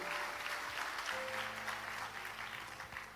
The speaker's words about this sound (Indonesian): Come on, berikan tepuk tangan bagi nama Tuhan.